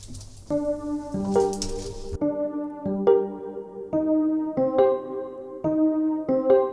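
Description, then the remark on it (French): A hip-hop track plays with no vocals, built on repeating tonal chord stabs that restart in a steady beat-driven rhythm, with a brief noisy texture at the start. “Et elle est danseuse, elle est artiste, elle est vraiment, a plusieurs cordes à son arc et, elle est, son morceau est juste génial, ses morceaux sont super, donc je, vous laisse écouter.”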